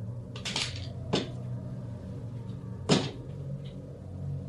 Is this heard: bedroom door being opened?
yes